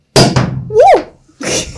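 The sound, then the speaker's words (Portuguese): A cork pops from a bottle of Dom Pérignon Luminous champagne with a sharp, hollow thunk and a second quick knock as it hits the ceiling, followed by a short rising-and-falling whoop and then a burst of hissing spray. “a rolha foi pro pessoal entrar no teto.”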